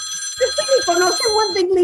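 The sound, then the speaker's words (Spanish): A telephone rings with a bright, warbling electronic tone that repeats in quick pulses, fairly loud and filling the short moment on its own. “Contesta, contesta el teléfono”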